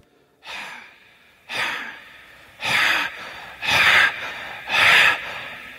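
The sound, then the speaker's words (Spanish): Five forceful open-mouthed breaths, inhaling and exhaling, pushed through a constricted throat, each a rough, hissing rush of air lasting under a second, evenly spaced and growing louder toward the end, with no talking. “Pero debes hacer el sonido, haciendo una constricción en tu garganta así.”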